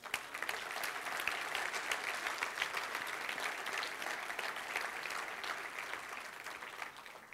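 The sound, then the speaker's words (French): A crowd applauds youths who painted a gymnasium, clapping steadily for several seconds, a dense patter of many hands at even loudness throughout, with no voices standing out. “Je pense que ça mérite une main d'applaudissement.”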